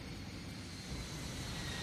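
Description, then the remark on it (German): A steady, droning roar of a jet engine rumbles continuously, heavy in the low end with a faint whine above, as the jet touches down on yellow sand at an airport in Angola and rolls toward the hangar. “Es setzt auf dem gelben Sand auf und rollt zum Hangar.”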